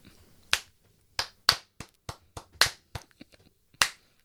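One person clapping slowly and unevenly, about a dozen sharp, crisp claps at irregular intervals, some loud and others softer, with no voices.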